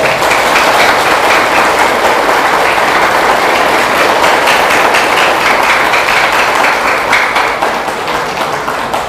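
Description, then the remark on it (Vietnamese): Loud, sustained applause from a large audience, a dense wash of many hands clapping steadily for about nine seconds, easing off only slightly toward the end, with no voices. “thì xin quý vị hãy dành một tràng vỗ tay thật lớn”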